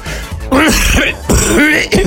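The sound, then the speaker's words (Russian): A man gives two loud, raspy bursts of coughing and throat clearing, alone, in a deliberate, exaggerated imitation of a smoker's hacking cough, as for a mock tobacco advertisement. “Табак должен рекламировать одетый мужик. Причем а с, с такой, с кашлем.”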